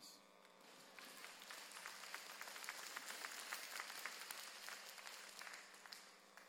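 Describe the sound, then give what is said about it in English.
An audience bursts into applause for the news of the gospel: steady, dense clapping from many hands at once in a continuous crackling wash that swells briefly and then tapers off over several seconds. “That is the wonderful news of the gospel and deserves at least one applause.”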